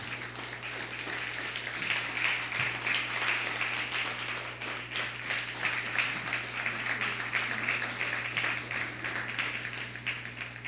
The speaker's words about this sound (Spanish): Gloria a Hashem. Dale un fuerte aplauso al Eterno.